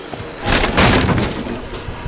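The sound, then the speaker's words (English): The character Hero slams his shield hard into the back door of an abandoned building, which bursts open onto the beaches of the northern shore with a loud crash and a splintering rumble that lingers briefly before fading. No voices. “Now running through an abandoned building, Hero slams his shield hard into the back door, bursting out onto the beaches of the northern shore of the realm, the moon high in the sky.”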